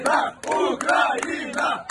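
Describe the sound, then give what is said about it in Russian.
A loud crowd of Ukrainian football fans in the Netherlands chanting "Ukraine" in unison as the Ukraine national team leaves for a match, with repeated rising-and-falling phrases punctuated by sharp, regular claps or drum hits. “Было довольно много болельщиков украинских, которые, собственно, скандировали название страны.”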